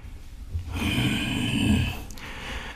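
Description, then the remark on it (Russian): A single long, heavy breath from an old man with a raspy, snoring-like rattle, fairly loud, lasting over a second before fading into quiet. No one speaks. “Старик уже из ума выжил. И дышит вон как.”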